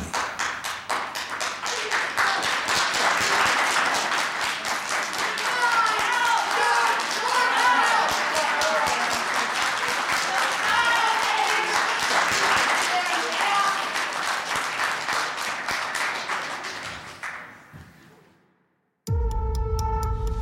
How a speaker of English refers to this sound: he was convicted, and when he was sentenced, the gallery broke out into applause as he was led out of that courtroom.